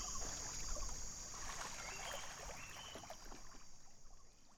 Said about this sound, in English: So we wake up early in the morning before the sun gets up over the mountains. And we're right on a river. And just this very beautiful, placid river surrounded by forest.